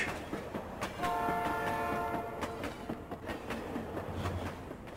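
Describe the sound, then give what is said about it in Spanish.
A train-passing sound effect introducing the 'Expreso Geek' segment: a train rumbles past with a steady clatter while its horn sounds one long, harmonic blast lasting about a second and a half, over continuous rolling rail noise; no one speaks. “Ahí viene el Expreso Geek.”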